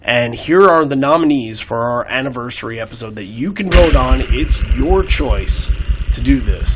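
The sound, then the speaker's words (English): An improvised drum roll, a fast, buzzing low rumble of rapid beats, kicks in partway through and keeps rolling loudly beneath a person speaking, sounding almost like an idling engine. “Ooh, is that I was giving you a drum roll there.”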